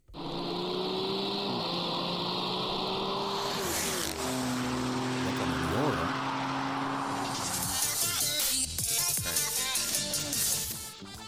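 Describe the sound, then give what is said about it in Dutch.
An intro jingle plays steadily throughout, with droning, engine-like tones that shift in pitch and a brighter, busier burst near the end. A voice speaks briefly over it. “Ja, de intro. Hij loopt. Zullen we het muziekje wegdoen zo?”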